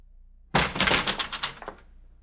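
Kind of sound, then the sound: household object, door opening and closing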